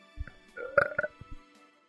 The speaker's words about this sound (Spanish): Pendejo, no, pendejo, no, esto, eructes dentro del pinche micrófono.